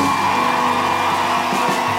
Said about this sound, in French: est-ce qu'on peut applaudir très fort Ben quand même de faire cette soirée de ouf